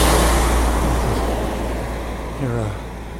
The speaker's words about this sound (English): It's a tractor trailer that just rolled by.